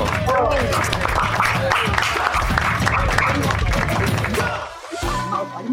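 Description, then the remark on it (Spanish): Several people clap steadily for a few seconds, a dense patter of hands mixed with overlapping voices and cheering, fairly loud, easing off briefly near the end. “Yo aprovecho para, para pedir un aplauso por el esfuerzo que está haciendo Verónica con su japonés”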